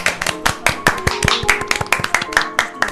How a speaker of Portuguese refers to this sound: Palmas para ele.